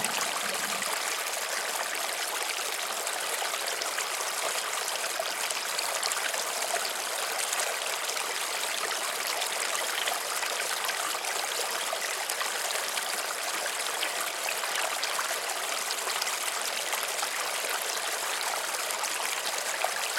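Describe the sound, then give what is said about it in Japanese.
A river flows steadily with a constant rushing, babbling wash of water, evenly loud and unbroken for the whole stretch, with no voices or other sounds. “流れる川の音に意識を向けましょう。”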